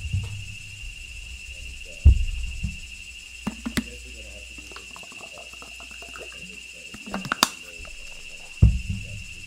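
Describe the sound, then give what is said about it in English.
Cicadas drone in a steady, high-pitched buzz that never lets up, forming a constant background layer, with a few soft thumps and clicks. “There, no more echo, just the cicadas.”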